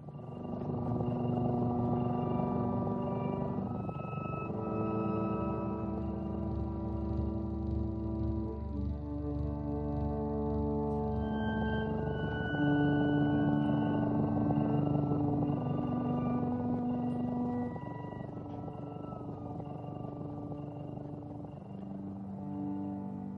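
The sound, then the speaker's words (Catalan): Slow music made for cats, of sustained, overlapping tones resting on a low, steady rumble that resembles a cat's purr. It plays continuously at an even, moderate loudness, with no voices. “el segon fragment, que recorda el bronzit del gat.”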